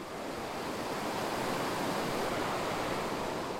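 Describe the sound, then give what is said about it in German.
The young Isel, a mountain river fed by glacier meltwater in East Tyrol, rushes through a narrow gorge, its water roaring in a dense, unbroken hiss that stays steady throughout, with no voices. “Denn was oben am Gletscher schmilzt, schießt unten durch die enge Schlucht der jungen Isel.”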